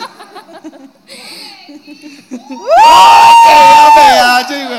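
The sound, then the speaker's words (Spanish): A soft crowd murmur, played as a sound effect, swells suddenly into loud, dense cheering and applause, with shouts and a long sustained whistle riding over the roar before it eases slightly at the end. “no me toca aplaudir y si no me mechonean otra vez.”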